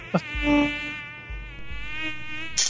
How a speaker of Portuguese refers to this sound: Aí o mosquitinho, a fêmea foi lá, cruzou com o mosquito transgênico macho, botou o ovo e não nasce nada do ovo.